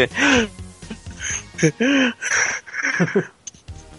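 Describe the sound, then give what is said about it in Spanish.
A voice imitates the heavy, tired panting of performers at the end of a presentation when the camera is brought to their faces, a run of breathy huffs and voiced gasps in quick succession, fairly loud, with no other sound around it. “así termina la presentación y nada más les acercan la cámara a la cara y nada más se ven que están así todos respirando, así bien cansados.”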